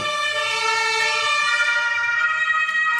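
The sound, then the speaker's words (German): A loud ambulance siren sound effect wails steadily, its harmonic-rich tone holding a sustained pitch throughout with no voices present. “Da kommt auch schon der Arzt, wie immer.”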